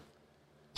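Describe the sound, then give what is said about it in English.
A single sudden sneeze bursts out at the very end, loud, after a stretch of near silence with only faint background hum. “Bless you.”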